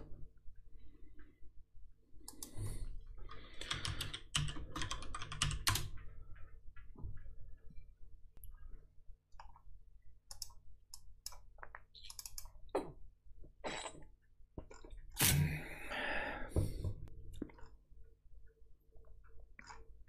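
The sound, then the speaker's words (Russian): Clattery typing on a computer keyboard while searching Google for "flat white": irregular runs of sharp key clicks with denser, louder bursts of keystrokes at two points, and no one speaking. “Э, я сейчас замолчал, потому что я зашел э, в Google и написал flat white.”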